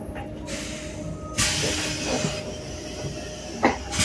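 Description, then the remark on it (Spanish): Riding inside a moving bus: a steady low rumble of engine and road noise with airy hiss that swells partway through, plus a brief rattling clank near the end, no voices. “Estoy grabando en el autobús.”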